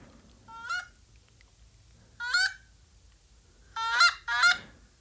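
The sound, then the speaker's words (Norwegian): Four loud, harmonic Canada goose honks, the 'all is safe' call played from a mobile phone app, sound against a quiet background, the first two spaced apart and the last two coming in quick succession. “Den første der er jo Her er det trygt. hei ronk, hei ronk.”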